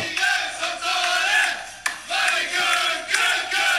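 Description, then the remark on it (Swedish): The Swedish national handball team, a loud group of men, singing, chanting and shouting together in celebration just after winning, a continuous rowdy crowd sound with rhythmic swells and a sharp clap-like hit midway. “Det är svenska handbollslandslaget, där de har precis vunnit.”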